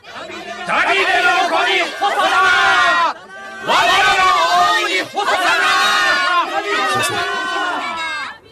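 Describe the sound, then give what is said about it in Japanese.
A loud crowd of children shouting and cheering together in a house of God, many high voices overlapping in a continuous joyful clamor that breaks off briefly midway, then surges back just as strong. “引き返そうイスラエルの民よ神の家は今子供らの足と喜びのどよめきに汚されておるぞ”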